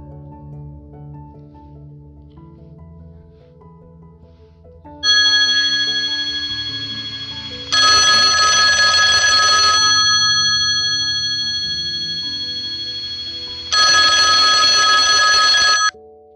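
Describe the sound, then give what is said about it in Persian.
A telephone bell rings loudly in two long, rattling bursts separated by a short pause, over a steady hum of sustained tones and soft background music. “تلفن زنگ میزنه”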